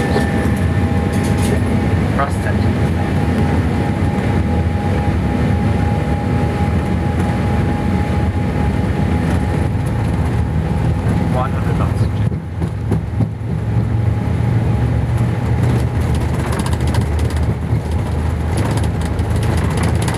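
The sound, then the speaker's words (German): A passenger jet roars down the runway on takeoff, a loud, steady rumble of engines with a constant whining tone running through it for the whole stretch. “unsere Maschine auf die Bahn rollen und dann ging es wieder los.”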